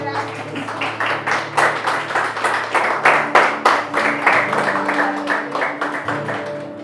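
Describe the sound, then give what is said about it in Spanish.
An audience applauds the Lord loudly and steadily for several seconds, many hands clapping at once, with voices and sustained tones carrying underneath the clapping. “Denle un fuerte aplauso al Señor.”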